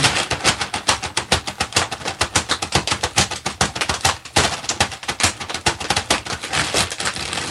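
A polyethylene plastic bag is crinkled and scrunched, producing a dense, continuous stream of sharp crackles and rustles that keeps going steadily for several seconds with no voices.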